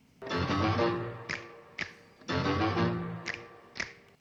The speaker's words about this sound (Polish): Ta rodzina na przykład y, umie pstrykać palcami do rytmu zawsze. Zawsze jest gotowa pstryknąć palcami. Pozdrawiamy rodzinę Adamsów